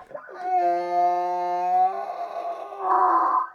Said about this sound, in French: Longtemps, c'était un son qui m'a intéressé, que j'ai enregistré dans plusieurs voyages aussi, parce que c'est toujours assez compliqué de savoir à quel moment va braire l'âne.